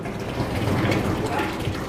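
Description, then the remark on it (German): Molten bell bronze pours from the furnace after a worker knocks out the clay plug, flowing along channels built of brick and clay toward bell moulds set in the ground, in a steady, unbroken rush, a dense gushing hiss with a low rumbling undertone at an even loudness. “Nun fließt sie die aus Ziegel und Lehm gemauerten Rinnen entlang, hin zu den einzelnen Glockenformen, die nicht sichtbar in der Erde stehen.”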